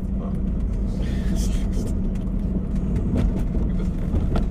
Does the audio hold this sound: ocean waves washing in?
no